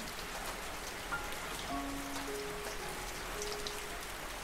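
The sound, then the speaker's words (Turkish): Steady rain falling on the ground, a dense, even patter of drops that fills the whole scene, with faint tonal hums drifting underneath and no one speaking. “Şimdi suyun sesini hisset, yağmuru”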